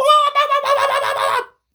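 A chicken squawks loudly and frantically for about a second and a half as it pulls itself out of a bucket, with a burst of flapping wings partway through, then it stops abruptly.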